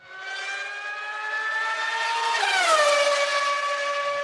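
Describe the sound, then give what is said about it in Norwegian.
A Formula 1 race car screams past at high revs, its piercing engine whine holding steady and then dropping sharply in pitch as it goes by, with no talking. “Endelig har vi begynt å få høre denne lyden igjen i eh, løpssammenheng og i biler som kjører rundt banesammenheng.”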